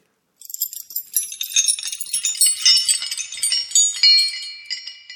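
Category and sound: household object, keys jingling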